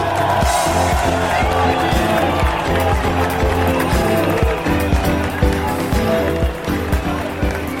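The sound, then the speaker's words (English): A big, dense crowd of Basque fans outside the Athletic Club de Bilbao football stadium in Bilbao roars loudly and continuously, voices pulsing in a steady, regular rhythm as they count down to signal the start of the 2023 Tour de France. “Well, that was the sound of the Basque fans at the start outside the football stadium, the home of Athletic Club de Bilbao, counting down to signal the start of the 2023 Tour de France.”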